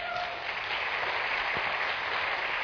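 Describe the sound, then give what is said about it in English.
A crowd claps steadily for a group of 15- and 16-year-olds who came up in front of them, a dense continuous wash of applause that stays loud and even throughout without any voices over it. “Can we hear it one more time for them?”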